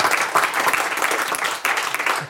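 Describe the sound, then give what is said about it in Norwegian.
An audience breaks into steady, dense applause for a performer on stage, many hands clapping at once in a continuous wash of sound that stays loud and even throughout. “En applaus til, da, til Thomas Nesse.”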